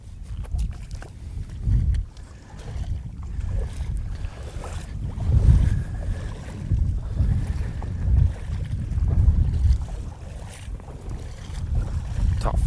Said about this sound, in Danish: Det blæser altså godt til hernede, synes jeg. Det er... Øh, ja. Men vi har vind inden fra siden, fra venstre side.